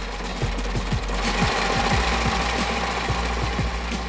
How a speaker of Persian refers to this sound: صدایی که میشنوید صدای دستگاه بافت ماست که بافت فشار قوی انجام میده رو شیلنگ های لاستیک شیلنگ های لاستیک کاربردشون برای بنزین برای باد برای فشار بالا بیشتر استفاده میشه برای روغن هیدرولیک هستش